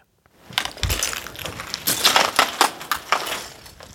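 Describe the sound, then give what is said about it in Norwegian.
Footsteps crunch over broken glass, concrete and metal debris as a married couple carefully make their way into their home in Ukraine, destroyed when Russian forces invaded; a steady series of gritty, clinking crackles, with no one speaking. “Knust glass, betong og metall.”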